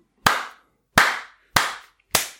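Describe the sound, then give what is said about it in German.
Four loud, sharp hand claps land at a slow, steady pace, each one ringing out briefly before the next: three CSU people striking their hands hard together, with no talking. “also die haben so in ihre Hände reingedroschen, dass alles zu spät war, weil niemand geklatscht hat.”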